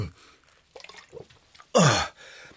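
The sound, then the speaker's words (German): A very thirsty person takes several quick, soft gulps of water, then lets out a loud, satisfied gasping exhale. Fairly quiet until the breath at the end. “Oh, …, du hast aber wirklich großen Durst.”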